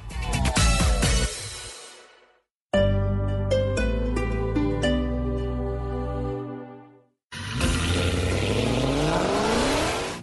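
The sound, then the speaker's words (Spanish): Car engines roar and rev loudly in three bursts separated by brief silences, with rising and falling harmonic whines as the engines accelerate and shift, and no talking. “se nos viene voces y rugidos de Colombia y del mundo.”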